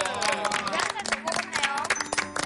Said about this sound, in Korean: 오늘 드디어 차크리 2020년 첫 방송하는 날이 되었습니다. 와~ 와~ 우리끼리 박수!